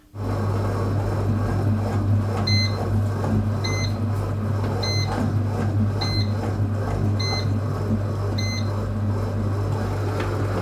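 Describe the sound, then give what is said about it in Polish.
A bread machine beeps six times, short high-pitched tones evenly spaced about a second apart, over the machine's steady low mechanical hum, signalling that the last ingredients, olives, can be added. No one speaks. “ten dźwięk, który Państwo w tej chwili słyszeliście, świadczy o tym, że możemy dodać ostatnią część składników, w tym wypadku są to oliwki.”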